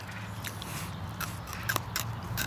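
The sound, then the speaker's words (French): Crisp crunching as a firm, fibrous stalk of a plant related to celery is bitten and chewed, with several sharp snaps over a low background hum. “donc quand on croque là-dedans, hmm.”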